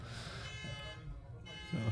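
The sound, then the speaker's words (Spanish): A car alarm blares outside with a steady, buzzing electronic tone rich in overtones, holding at a moderate level throughout. “Ahora a, la alarma del carro.”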